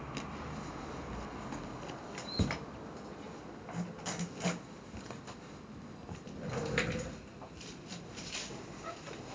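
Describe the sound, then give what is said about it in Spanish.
Doors are slammed shut a few times by someone in a bathroom: one sharp thud, then duller knocks and rattles, muffled against a quiet indoor background. “mi mamá está en el baño mandando los portazos”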